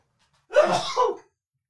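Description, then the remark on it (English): A single forceful sneeze bursts out in two quick parts, a sharp intake-like onset followed by a loud explosive release, then silence. “Oh, I'm going to sneeze.”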